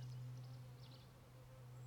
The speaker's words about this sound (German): Du hörst sogar Bienen um dich herum. Es ist Frühling. Es ist Frühling.